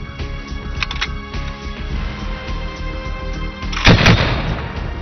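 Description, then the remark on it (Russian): A modernized DShKM heavy machine gun, chambered for the Soviet 12.7×108 mm cartridge, fires in dense, rapid bursts of loud booming shots, with the harshest, sharpest reports coming in a short cluster near the end. No one speaks. “Модернизированный пулемет ДШКМ в комплексе с советским патроном 12,7 на 108 мм был наиболее мощным оружием в своем калибре.”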